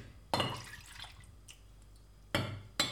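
About a quarter liter of liquid splashes from a glass held over a pan: one longer, wet pour fading out, then two short, sharp splashes near the end, with no one talking.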